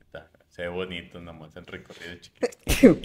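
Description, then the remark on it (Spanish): A man speaks casually for a couple of seconds, then a single loud, abrupt sneeze bursts out at the end. “Salud. Gracias, carnal.”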